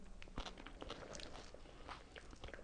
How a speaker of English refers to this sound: Um, so I'm going to taste. Apologies to anyone who's got that thing where they can't bear to hear people crunching that.